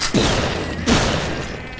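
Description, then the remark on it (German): Two thundering double-barrel shotgun blasts, loud, fired less than a second apart after reloading, each booming report followed by a long rumbling tail that fills the space between them. No one speaks. “seine äh, doppelläufige Nummer nachzuladen, auch wenn er sehr angeschlagen ist, schwer atmend aus mehreren Wunden bereits am Bluten ist, gibt er wieder zwei donnernde Schüsse ab”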